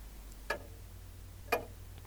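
A clock ticks steadily, two crisp clicks spaced about a second apart, heard alone against a quiet low hum.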